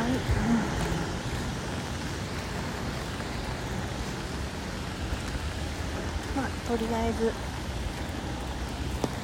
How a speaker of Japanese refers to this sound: こんな状況です雨降ってます